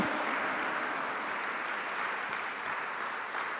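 An audience applauds in worship of the Lord, many hands clapping in a dense, continuous wash of sound that stays fairly even in loudness for the whole stretch, with no voices standing out.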